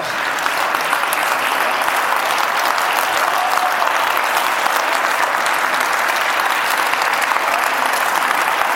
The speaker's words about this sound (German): Armin Thurnherr betrachtet den andauernden Applaus als Aufforderung zu einer Zugabe, die ich ja nie gebe.